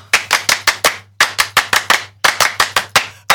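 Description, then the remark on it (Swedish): A crowd gives a 'French applause' in unison to welcome a guest on stage, in a rhythmic pattern: groups of five quick, sharp claps separated by brief pauses, repeated three times, loud with a low hum beneath and no talking. “Det är med stolthet som jag nu ber att få utbringa en fransk applåd för att välkomna Mr Musik och Romantik”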